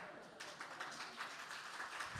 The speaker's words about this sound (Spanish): Pero ¿por qué no la aplauden con ganas? Aplauden como, sí, cómo no, no saben la que se está metiendo.